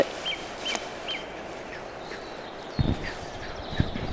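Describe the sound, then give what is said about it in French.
A goldcrest sings its nuptial song marking territory, a thin, high-pitched series of quick repeated notes, faint, over low background rumble with a couple of soft thuds near the end. “Et là, on entend bien le, le roi Telé.”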